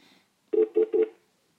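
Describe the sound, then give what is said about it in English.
A phone rings with an incoming call from a man's wife, three quick electronic beeps in a steady rhythm, fairly clear, with no talking over it. “Who's calling? My wife's calling me.”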